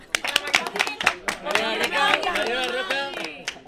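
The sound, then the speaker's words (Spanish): A short burst of scattered applause, with quick sharp claps, followed by voices calling out as the clapping thins into a few final claps. “eh, vamos a decirle hola a mi hermana, por favor, un aplaudimiento.”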